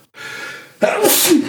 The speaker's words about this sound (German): Gesundheit. Boah. Es gibt zwei Sachen, die mich zum Niesen bringen. Äh, Sonne und Kaffeebohnen.